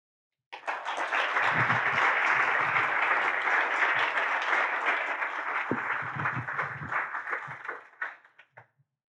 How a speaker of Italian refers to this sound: Allora, adesso siccome è cominciata troppo bene, tutti applausi, tutti felici, eccetera, adesso ti metto un po' in difficoltà e te ne faccio una difficile, eh, no?